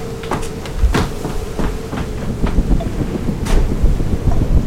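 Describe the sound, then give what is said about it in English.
A loud, steady roar of wind from a funnel cloud, rumbling low like a passing freight train, with sharp gusts and clattering bursts breaking through the churning noise. “We got a funnel cloud!”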